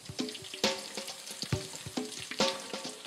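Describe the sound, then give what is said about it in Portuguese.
Breaded chicken breasts, coated in beaten egg and breadcrumbs, frying in hot oil in a frying pan for about five minutes per side: a steady bright sizzle with irregular crackles and pops, plus a few sharper clinks and taps scattered throughout, and no one speaking. “Colocamos os peitos de frango e deixamos que fritem cerca de 5 minutos de cada lado.”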